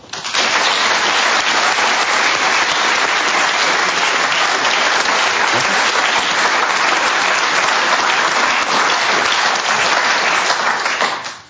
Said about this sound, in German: Begrüßen Sie mit mir zusammen mit einem herzlichen Applaus Patti Basler.